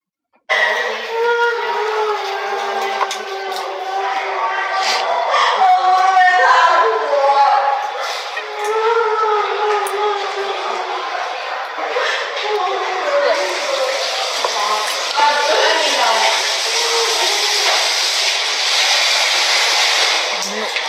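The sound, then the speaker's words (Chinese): A young woman who has drunk too much cries loudly outside, with long wavering, high-pitched wails and sobs for about thirteen seconds, then steady rushing running water takes over while faint crying continues underneath. “先让他们听一下姑 对 娘哭的”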